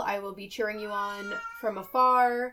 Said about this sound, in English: I don't know if you guys can hear my cat meowing, but Sigurd's here. He's also cheering you guys on. He agrees.